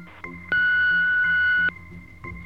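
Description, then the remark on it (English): A single loud, steady electronic answering-machine beep lasting just over a second, sharp on and off, with faint low tones and hum around it and no voices. “Leave your message after the beep.”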